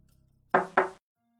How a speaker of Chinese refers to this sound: 温之夏走上楼梯，穿过了阴森昏暗的走廊，站在了柚木大门门前，轻轻的扣响手环。